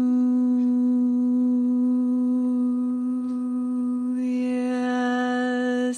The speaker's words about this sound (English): that's the sound of people singing together. I don't know how much you did this even before COVID, but we're doing it today. Hallelujah. Go ahead and sing and ooh, yeah, you can feel that low note getting down into the earth down in there.